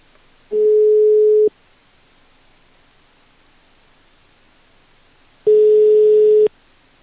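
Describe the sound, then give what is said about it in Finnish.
Two steady electronic telephone tones, each about a second long, separated by roughly four seconds of faint hiss; a busy signal after a phone call dropped, with no one speaking. “Ihme, miten nämä puhelut katkee?”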